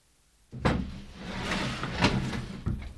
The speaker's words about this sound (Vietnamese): Người phụ nữ suy nghĩ một lúc rồi mở cửa cho nó vào.